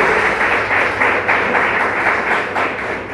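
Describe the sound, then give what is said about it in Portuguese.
An audience claps steadily for the Lord Jesus at night, a dense, continuous wash of many hands with a faint pulsing rhythm, loud and sustained with no voices over it. “Se eu fosse você, batia palmas pelo Senhor Jesus nessa noite.”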